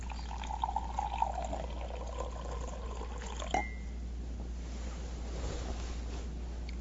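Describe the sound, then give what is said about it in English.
Water pours steadily into a glass for a few seconds with a soft, hissy trickle, ending in a small clink, followed by quiet background noise. Nobody speaks. “I think I'll just have a bit of water, you know.”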